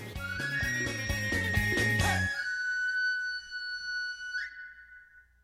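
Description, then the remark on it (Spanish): A knife sharpener's street whistle: a quick, choppy run of notes, then a loud, high, held tone that slides upward and cuts off. No one speaks. “Bueno, este último era el afilador de cuchillos, que cada vez escuchamos menos, pero que ese sonido, pues rápidamente, pues nos transporta que hay que ir por el cuchillo, hay que ir por el cuchillo para sacarle filo.”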